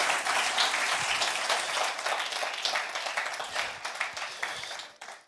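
Sustained audience applause, a dense crackle of many hands clapping at steady loudness for about five seconds before thinning out and fading at the end.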